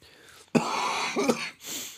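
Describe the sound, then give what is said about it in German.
A forceful cough bursts out, followed by a rough, throaty second cough and a brief breathy exhale, with no talking around it. “Das ist auch ein richtig geiles Geräusch. Wenn ich hust”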